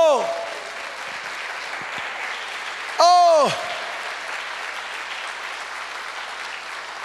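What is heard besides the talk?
audience applauding loudly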